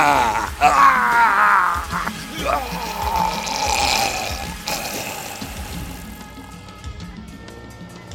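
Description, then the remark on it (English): A steady liquid stream of someone urinating runs for several seconds, accompanied by a low groaning voice early on, then gradually thins and fades toward the end. “Well, I really have to pee.”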